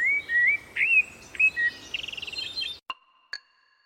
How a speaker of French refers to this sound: Même s'il chante toute la journée, l'oiseau ne possède pas de corde vocale.